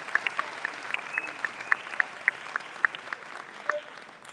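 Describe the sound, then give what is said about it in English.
An audience at Universal Academy applauds its 19 graduating seniors steadily, a dense wash of clapping with individual sharp claps standing out, moderately loud and sustained for the whole stretch without voices. “Let's give them all 19 a big round of applause.”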